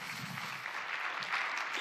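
Steady audience applause welcoming a speaker onto the stage, a dense crackle of many hands clapping at an even level throughout with no voices over it.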